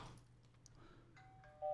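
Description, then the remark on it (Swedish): A telephone rings with an incoming call, a steady electronic tone that starts faintly and swells abruptly loud near the end, with no one talking. “Ah, nu ringer det.”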